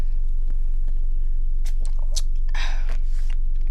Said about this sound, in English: Hold on. I need a sip. I need a sip. Hold up. We gonna sip on this. Hold up.